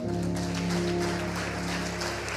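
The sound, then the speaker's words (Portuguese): A church audience claps steadily to praise Jesus during a worship service, a dense, continuous wash of applause, with a sustained low musical drone, like a held keyboard chord, running underneath the whole time. “Aplauda ele aí.”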